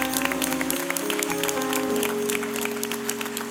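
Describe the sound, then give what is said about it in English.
A church audience claps their hands in praise to the Lord during worship, dense, steady applause that continues throughout, with sustained low musical tones holding underneath. “Come on, if you would clap your hands one more time and give the Lord praise.”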